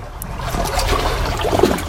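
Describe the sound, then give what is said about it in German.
Gentle waves lap and splash softly at the shore of crystal-clear, very cold water in a steady wash, with small trickling sounds rising and falling and no voices. “das Plätschern der Wellen hier hören.”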